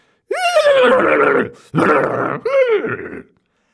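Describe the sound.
A person imitates a horse's neigh with their voice in three loud bursts: a long, wavering whinny, then two shorter ones, each sliding down in pitch. No talking, just the vocal impression.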